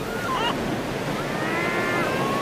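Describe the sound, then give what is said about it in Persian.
Sea waves rush and wash steadily against the hull of a ship, heard from beside its deck, a continuous loud roar of water mixed with wind, with a few faint high whistling tones drifting over it. “داشتم از کنار عرشه به دریا نگاه میکردم”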